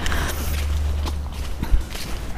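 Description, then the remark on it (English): Footsteps crunch steadily through a woodland floor, passing a holly tree, with irregular thuds and rustles over a low background rumble. “So I'm walking along in the woods, I'm passing a holly tree with beautiful red berries.”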